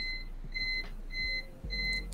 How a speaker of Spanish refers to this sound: No, mi no break está chillando como loco, no sé por qué.